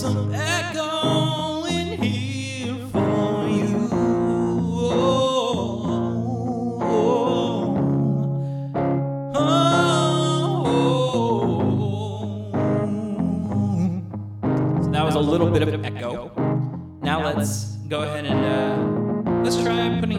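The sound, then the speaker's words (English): A singing voice with an added echo effect, each phrase trailing off into repeating reflections, loud and continuous over about twenty seconds with a full musical backing. “Put a little echo.”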